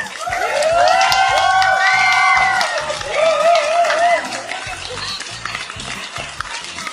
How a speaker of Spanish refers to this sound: Ok. Otra vez. aplauso.